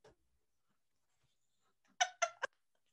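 A squeaky yawn breaks the quiet in three quick, tonal bursts near the end, with a faint click at the start and no talking.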